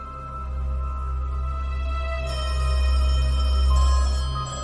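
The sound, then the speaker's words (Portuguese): Several telephones in all the houses ring at the same time, their steady electronic tones layering into a dense, droning chorus as more phones join partway through, all over a heavy low rumble. No one speaks. “Vocês escutam o telefone de todas as casas tocarem ao mesmo tempo.”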